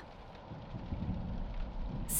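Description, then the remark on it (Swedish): Steady rain pours down while a low thunder rumble rolls underneath, a continuous storm wash with no voices, growing slightly louder and brighter at the very end. “Hon flög så snabbt hon kunde bland blixtar och regnvatten.”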